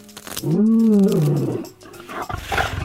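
A lion lets out one loud, deep roar that swells and then sinks in pitch over about a second, followed by softer rough, rumbling noise as it fades.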